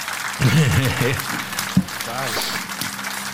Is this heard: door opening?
no